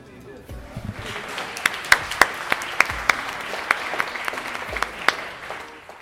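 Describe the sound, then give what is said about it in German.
Sustained applause from an audience, a dense wash of many hands clapping with a few sharper, louder claps standing out, fairly close and steady throughout. “Und mit diesem Applaus aus dem All Ears Podcast Summit 2023 von Spotify möchte ich dich begrüßen.”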